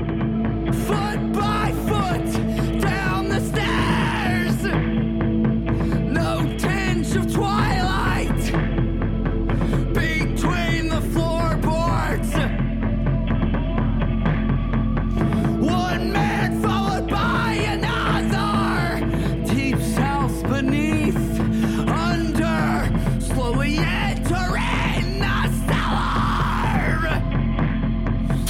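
A heavy rock song with harsh screamed vocals over loud, dense guitars and pounding drums, the wall of sound staying steady and intense throughout with only brief dips between sections.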